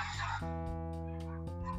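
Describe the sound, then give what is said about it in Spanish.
A dog barks in a series of drawn-out, tonal yelps, fairly faint, with only brief gaps between them. “el perro está ladrando.”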